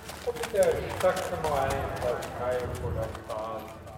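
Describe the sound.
Hooves pound in a rapid, continuous clatter as horses gallop past at a steady run during a horse race in Straubing, with a voice talking over the noise throughout.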